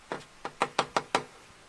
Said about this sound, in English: And then they knock on the door